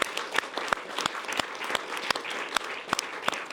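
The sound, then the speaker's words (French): An audience claps steadily for the show's production crew, a dense patter of many hands with sharper individual claps standing out. No one speaks over the applause, which holds at an even, moderate level throughout. “On peut les applaudir, bien sûr.”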